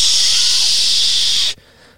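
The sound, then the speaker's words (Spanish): A voice imitates the static of a television left on with no signal: a loud, steady, breathy hiss lasting about a second and a half, then cutting off abruptly into near silence. No words are spoken. “Sin señal ya. Sí, pero, pero tiene un nombre. estática.”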